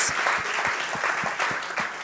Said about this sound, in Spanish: Pero dele el aplauso fuerte al Señor.